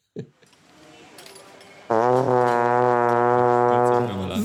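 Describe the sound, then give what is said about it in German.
A soft wash of crowd applause, an applause sample from Splice, is suddenly cut through by a loud, sustained, harsh scream that holds for about two seconds before easing off slightly at the end. “Wir haben einfach bei Splice irgendwelche ähm, Applaus-Samples gesucht und das war das Sample”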